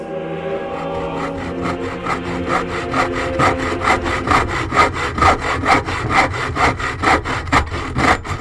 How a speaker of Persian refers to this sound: این صدای اره معمولی است که تکه چوبی را می برد